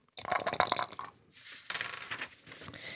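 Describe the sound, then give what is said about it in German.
Three dice rattle briskly inside a cup held in a hand, in a dense burst of hard clicks, then tumble and skitter across a tabletop in a rougher, washy clatter. Fairly loud, with no voices. “Gülsch hat einen Becher in der Hand, dort hat es drei Würfel drin und die Zahl, die sie würfelt”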